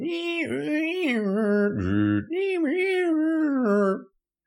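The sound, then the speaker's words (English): A voice imitates the screech a dial-up modem made when connecting to the internet in the mid to late 1990s: about four seconds of loud, warbling, pitch-gliding tones with a brief buzzy low drop in the middle, then abrupt silence. “Like back in the um, the mid '90s, late '90s, uh, when the internet was just a thing, uh, sort of like a, uh, in its infantile form, uh, and it was just being released to uh, to the eager public with the dial-up, the screech”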